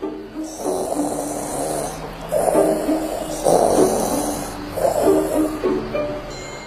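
sound effect, snoring

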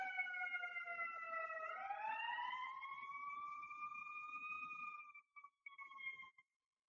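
vehicle, passing emergency vehicle siren

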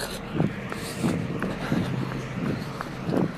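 human body sound, footsteps of someone running

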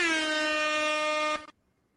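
signal or alarm, air horn blast

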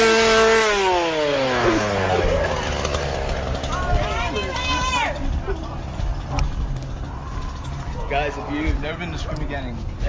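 tool, chainsaw running

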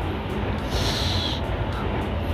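vehicle, train passing by

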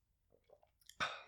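food or drink, swallowing a drink

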